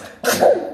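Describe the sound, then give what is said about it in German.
A child sneezes once: a sudden, sharp burst of breathy noise that swells with a brief voiced edge and fades within half a second, with no talking. “Gesundheit”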